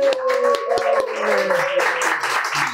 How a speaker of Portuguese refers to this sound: Senhoras e senhores, uma salva de palmas, auditório, para Marcos Mion, que está aqui com a gente hoje.